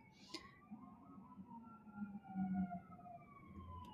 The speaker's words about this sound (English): Sorry for this frenzy of sirens. I hope everyone's okay.